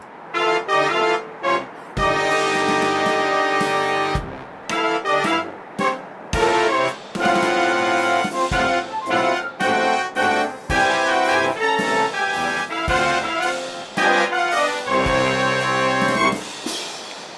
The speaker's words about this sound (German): Das hört sich eher nach einer äh, Kirmesdrehorgel der größeren Art an, dampfgetrieben ja.